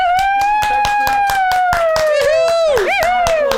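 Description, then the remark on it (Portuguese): An audience at a magic show claps in a steady, even rhythm, about four claps per second, after a magic wand trick produces two handkerchiefs. A sustained high tone, like a held voice or whistle, runs over the clapping and slowly glides downward. “Eu já ia falar, bate palma!”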